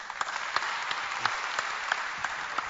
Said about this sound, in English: So we are clapping for you right now.